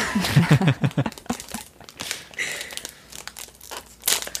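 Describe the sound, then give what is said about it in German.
Loud crinkling and crackling of a plastic cookie wrapper being pulled open, with irregular rustling bursts over several seconds and a sharp tear near the end. “Ihr hört ja gerade, dass ich die Packung aufmache.”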